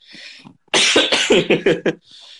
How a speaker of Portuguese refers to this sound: Nossa, a tosse me pegou.